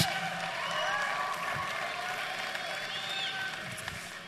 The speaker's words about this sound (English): Y'all just give it up for them.